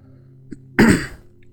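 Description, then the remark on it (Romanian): A single short, harsh throat clearing or cough bursts out, lasting about half a second against a faint low hum, with no talking. “Ei, nu am mai tușit atât de de... Cred că nici nu am tușit. Cred că am avut doar anumite ticuri.”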